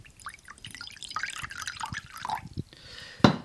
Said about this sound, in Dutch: Ten eerste doe ik eigenlijk de vodka in een, in een bakje om, om daarna te kijken hoeveel milliliter dat is.